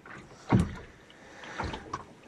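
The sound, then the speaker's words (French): A moored boat, held by mooring lines at its stern, knocks with a loud, deep thud, then two softer knocks follow, over a low, steady rumble and creak of the vessel shifting at its lines. “Et ça vibre, ça tape.”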